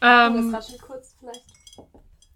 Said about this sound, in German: Kleine Windspiel ist wieder da.